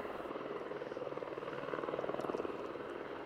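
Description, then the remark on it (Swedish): A helicopter with a chain fastened beneath it, lowered to lift wreckage of a crashed sports plane on Storsandskär island outside Umeå, Sweden, thunders, its rotor blades chopping in a fast, steady rhythm over a broad engine roar that swells slightly louder midway through. “Bärgningsarbetet gick till så att en helikopter med en kedja fast under sig sänktes ner och plockade upp de olika flygplansdelarna.”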